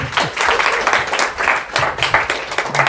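An audience applauds steadily, a dense wash of many hands clapping at a fairly loud, even level throughout, with faint voices now and then beneath it.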